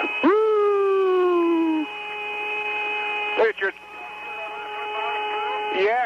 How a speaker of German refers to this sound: Drei Astronauten flogen zum Mond und auf seiner erdabgewandten Seite machten sie diese Tonbandaufnahmen, die aus ihrem Funkgerät kamen. Hast du diesen pfeifenden Ton auch gehört? Klingt wie Space-Musik.